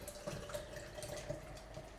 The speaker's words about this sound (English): I always pour vigorously because it's the proper way to pour beer. Oh, what a perfect fit. Just perfectly fits this glass.